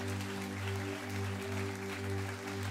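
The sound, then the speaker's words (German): Sustained applause from a crowd, a dense, steady wash of clapping with no pauses and a low electrical hum running underneath throughout. A church audience applauds the watch parties at its Ludwigslust-Parchim location. “Deswegen, hey, heute haben wir Watchpartys da, wir haben große Herausforderungen mit Gebäuden aktuell, aber können wir allen in Ludwigslust parschi in unserem Standort da oben, allen Watchpartys mal einen riesen Applaus geben.”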